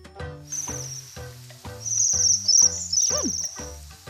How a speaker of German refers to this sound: Wir haben uns auch herausgesucht, wie klingt ein Seidenschwanz.